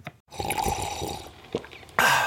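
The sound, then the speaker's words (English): A wet slurp of someone taking the first sip of hot morning coffee, with soft liquid sounds and small clicks, ending in a brief breathy exhale. No one speaks. “That's not just the sound of that first sip of Morning Joe.”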